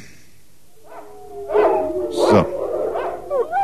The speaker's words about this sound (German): Das nächste Geräusch sind wilde Hunde und Wölfe.